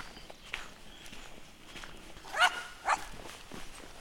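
Two quick, high yaps from a small dog in a forest, over a quiet outdoor background with faint footsteps.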